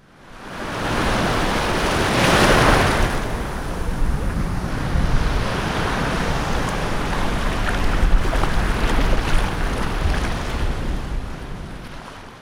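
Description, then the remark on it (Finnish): Steady roar of big-wave surf at a Portuguese coastal town where surfer Garrett McNamara rides giant waves, with one wave swelling and crashing loudly early on, then a continuous wash of broken water and some wind rumble. No voices. “Aallothan ovat olleet täällä aina, mutta kukaan ei ole tiedostanut niiden vaikuttavuutta.”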